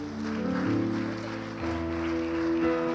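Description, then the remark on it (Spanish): An audience claps steadily for Christ throughout, a dense wash of applause blended with sustained chords of keyboard music, both loud and continuous with no talking. “Vamos a aplaudir a Cristo en esta hora.”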